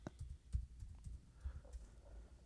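Soft, irregular clacking of keys on a computer keyboard as someone types the name Ariya Daivari into Google, quick bursts of taps with brief pauses, quiet, with no one talking.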